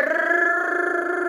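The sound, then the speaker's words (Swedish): A person hums a steady, buzzing drone in imitation of a small moped engine, a continuous mid-pitched tone held evenly for over a second with a slight wavering flutter. “så åker han runt på en moppe jämt.”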